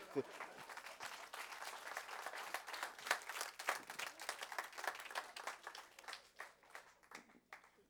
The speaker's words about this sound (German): Ihr könnt es klatschen. Wenn es klatschen wollt, wird es gescheit klatschen.